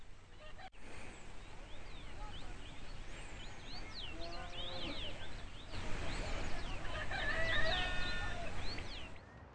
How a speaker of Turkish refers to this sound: Şimdi dipsiz göl ve çevresinde kuş seslerini duyduğunuzu düşünüyoruz. Şimdi 3000 yıllık göl.